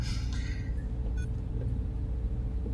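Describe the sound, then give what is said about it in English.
A ship's engines, those of the Patchwork, rumble with a deep, steady drone at an even volume as the crew strap themselves in, with a few brief higher tonal whines flickering over it early on. No voices. “The crew strap themselves in and the patchwork's engines get louder and louder.”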